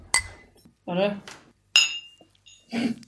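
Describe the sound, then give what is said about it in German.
Two bright, ringing clinks of glass bottles of woodruff schnapps tapped together in a toast, fairly loud, separated by a short spoken word, with a voice murmuring again at the end. “Das klingt so immer so schön bei dir. Ja, das ist, weil die Flasche immer leerer wird.”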